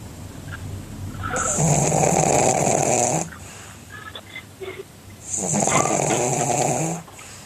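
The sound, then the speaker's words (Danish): A flat-faced dog snores loudly while asleep, two long rasping, wheezy inhalations separated by quieter breathing, clear with no talking. “Øh, vi kan lige prøve at høre, der er et klip her fra, øh, hvordan det lyder, når de sover, de her hunde.”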